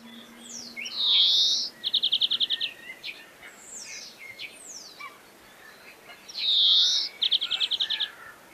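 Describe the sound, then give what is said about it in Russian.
A European greenfinch sings outdoors, a drawn-out wheezy buzz followed by a quick rattling trill, repeated twice, with other faint bird calls in the background and no talking. “А зеленушка, вот она там да, вот это жужжание такое.”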